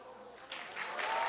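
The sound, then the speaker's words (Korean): A crowd breaks into applause for visitors who came from Suncheon, South Jeolla, the clapping swelling after a brief quiet start into a dense, steady patter of many hands that grows louder toward the end. “아, 이거 뭐, 이 박소리가 벌써 남, 전남 순천에서.”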